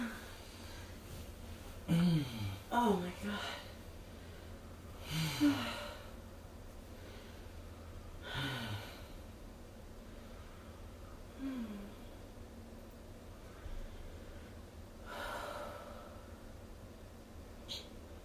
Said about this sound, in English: Ah, the orgasms. Is there anything better than listening to people come? I know, I really enjoy it. And I love hearing all the variations in exactly how people come.